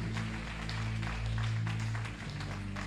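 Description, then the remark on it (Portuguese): A crowd claps steadily for a few seconds, a dense crackling wash of applause over sustained low keyboard chords, with no one speaking. “Pode aplaudir se você quiser.”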